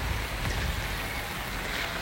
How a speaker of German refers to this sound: Mein Regenschirm ist richtig nass. Ich habe den gerade so abgeschüttelt damit ein bisschen vom Regen, vom Regenschirm weggeht. Aber der ist, da kam richtig viel Wasser. Also es regnet gerade schon echt stark, hört man bestimmt auch.